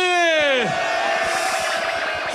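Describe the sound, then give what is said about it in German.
A loud voice lets out a long, falling shout, then a large crowd at a freestyle rap battle roars and cheers steadily after the first round, a dense wash of yelling and whooping that fills the rest of the moment. “Macht nochmal extra Lärm”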